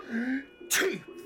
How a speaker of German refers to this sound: Gesundheit